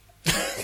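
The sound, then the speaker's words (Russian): A single breathy yawn bursts in abruptly after a brief quiet moment, loud and rough, holding steady for about half a second with no talking over it. “Ты зевнул, сказал микрофон.”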